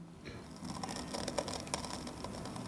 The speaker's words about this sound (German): Wenn man ganz leise ist, kann man auch hören, wie die Schnecken von der Sepiaschale runterknuspern. Sie haben eine Radula, das ist ein Mundwerkzeug, das ist die Zunge, mit der sie den Kalk abraspeln.